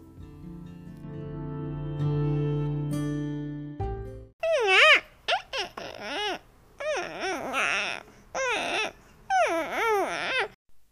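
A newborn baby cries in a string of short, wavering wails with brief gasping pauses, loud, following several seconds of a steady sustained musical tone.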